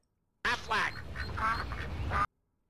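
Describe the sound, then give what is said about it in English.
A human voice imitates a clucking French hen, with a few nasal, squawky bursts in quick succession. Fairly loud, lasting under two seconds. “Let's see what a French hen sounds like.”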